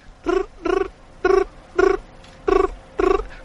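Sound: voice imitating chirping crickets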